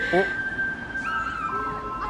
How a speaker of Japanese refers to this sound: 16時半の鐘が鳴ってますね